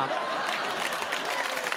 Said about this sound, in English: Applause break.